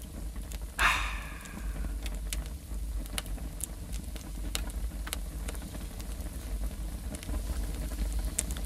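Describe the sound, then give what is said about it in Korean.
Dry firewood crackles and pops in a steady, well-caught campfire, sharp irregular snaps scattered over a low rumbling burn, with one louder burst near the start. No one speaks. “야, 이 소리는요. 아주 잘 붙어서 타는 소리입니다.”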